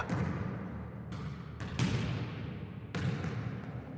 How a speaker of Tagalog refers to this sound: Maging ang tunog ng tumatalbog na bola.